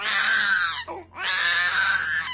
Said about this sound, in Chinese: 这时候，我们听清了那个声音，原来是婴儿的啼哭声。可是这大晚上的，在这荒郊野外，哪里来的婴儿？